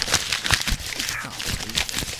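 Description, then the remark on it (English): Crisp crinkling and rustling of wrapping paper as a person who has accidentally wrapped themselves up in it struggles, fairly steady throughout, with bursts of crackly noise as it is handled and scrunched. “I've just accidentally wrapped myself up in a bunch of it, and embarrassing to say, but I'm stuck.”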